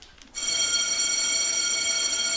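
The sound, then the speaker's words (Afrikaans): An electric school bell starts abruptly and rings continuously at a steady, loud level, with a bright metallic buzz that fills the rest of the short clip. No one speaks. “Die skoolklok lui en Carlo spring dadelik op.”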